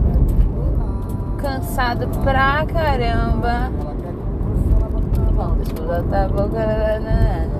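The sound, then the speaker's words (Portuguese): Steady low road rumble from a moving car driving behind a truck that is dropping small stones, the driver swerving to avoid it, loud and continuous, while a woman talks over it throughout. “No momento tem um caminhão na minha frente jogando pedrinhas.”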